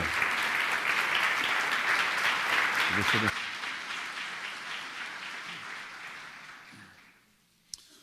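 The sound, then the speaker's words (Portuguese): Loud, dense audience applause welcoming a speaker rings out steadily for about three seconds, then thins and fades gradually, ending with a few scattered claps and a single sharp click. “Vamos receber com a salva de palmas Osmar Ludovico da Silva.”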